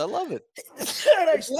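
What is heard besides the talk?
sneeze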